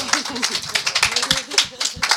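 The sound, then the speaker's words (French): A studio audience at a morning broadcast claps steadily, a dense patter of many hands at moderate loudness, with a voice speaking over it at points. “Vous applaudissez.”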